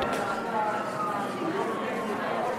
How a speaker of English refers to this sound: The sound of a room, an old industrial space, cement floor, tall ceilings. About 60 people shuffling into a room looking for a seat